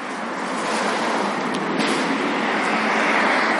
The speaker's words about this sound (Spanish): Aquí a lo mejor escucharéis mucho coche, sí que hay bastantes vehículos.